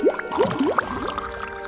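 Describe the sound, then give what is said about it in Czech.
Liquid is poured while mixing a potion, pouring and gurgling for a moment with a quick series of rising bubbly glugs, moderately loud, and no voices over it. “Netrvalo to dlouho a už připravoval speciální lektvar, který by strom mohl vyléčit. trošku přidám. Tak.”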